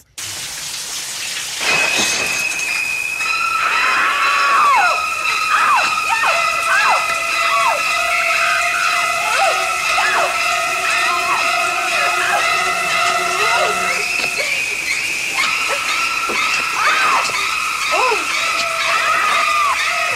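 Shrill, shrieking string instruments from the horror film score of Psycho play loud, piercing sustained notes, stabbed by repeated sliding screeches, with no voices over the music.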